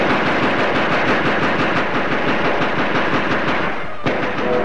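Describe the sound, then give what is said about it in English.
Sustained machine gun fire rattles continuously in loud, rapid bursts, with dense overlapping shots that barely pause before a brief gap near the end, as people are being shot at. “you Christopher Columbus, we're being shot at!”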